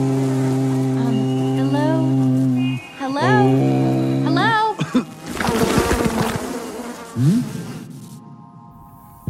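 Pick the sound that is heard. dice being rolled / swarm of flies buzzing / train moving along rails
swarm of flies buzzing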